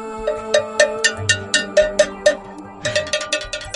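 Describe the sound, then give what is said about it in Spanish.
A hand bell is struck over and over in a quick, steady rhythm, each bright metallic clang ringing briefly into the next. It is fairly loud, with a short pause midway, as the bell is tried out to accompany singing. “Voy a probar a ver si la voz y la campana, ¿cómo suena?”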